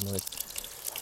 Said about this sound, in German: Und jetzt schöne zwei Esslöffel Butterschmalz erhitzen. Das ist jetzt auch, man hört es schon im Hintergrund. Es spritzt schon leicht. Ja, also fantastisch. Wird richtig schön warm.